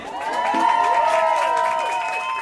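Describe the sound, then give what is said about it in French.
Neighbours cheer and applaud at 8 pm in the evening, with sustained shouts and whistles ringing over a steady wash of clapping that carries on without pause. “Tous les soirs à 20h, on faisait le clapping un peu comme tout le monde.”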